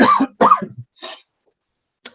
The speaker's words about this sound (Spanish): perdón, que me pica la tos.